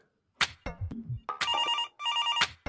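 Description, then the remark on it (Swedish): A telephone rings on an outgoing call to someone in Mora, two warbling electronic ring bursts separated by a short pause, clear, preceded by a few brief clicks and thumps of dialing. “Så det kanske är dags att vi tar och eh, ringer upp en Moring för att se hur det står till kring Siljan.”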